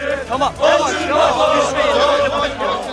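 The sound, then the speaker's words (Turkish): A large crowd at Samsun Airport cheers and chants loudly together for İdris Naim Şahin while throwing confetti, voices overlapping in a dense, continuous roar with rhythmic shouted bursts, energetic throughout. “Kalabalık Şahin'e konfetiler atarak tezahüratta bulundu.”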